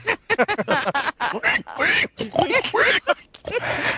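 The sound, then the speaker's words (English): A person imitates a pig, making a rapid run of snorting grunts and squealing oinks, fairly loud, in choppy bursts with brief gaps. “Do the pig imitation again.”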